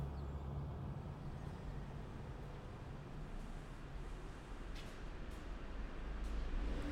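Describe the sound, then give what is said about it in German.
A car races into a hospital's parking garage, its engine a steady rumble with a few brief clacks near the end and no one speaking. “Manfred rast mit dem Auto in die Garage des Krankenhauses.”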